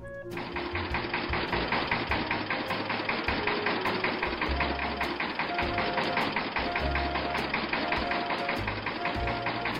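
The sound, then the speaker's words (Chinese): A tractor engine roars steadily for the whole stretch, a loud, rattling mechanical drone with a fast, even chugging pulse and a low rumble underneath, with no voices. “实际上，拖拉机真的没长耳朵，依然不紧不慢的吼叫。”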